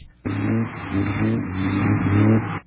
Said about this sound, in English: There's a car. There's another car. Only 300 more miles to go. There's a car.